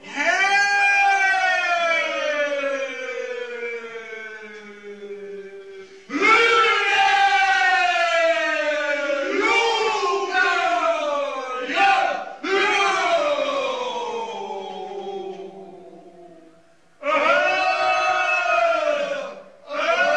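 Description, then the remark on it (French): An Albanian funeral chant of collective wailing: many voices together in long, loud, sustained cries, each phrase gliding downward in pitch, repeated in several waves separated by brief pauses, with no spoken words. “Cette texture de meute de loup peut se retrouver un peu partout, comme dans ce chant funèbre albanais avec cette idée de pleurs collectifs, d'une exclamation vocale commune de la douleur, des hurlements humains mais finalement si animaux.”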